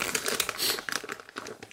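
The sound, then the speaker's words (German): The wrapper of a eucalyptus candy being crinkled and unwrapped, with a dense run of sharp, irregular crackles and rustles lasting under two seconds, no voices over it. “Warte ich aber noch das Rascheln ab.”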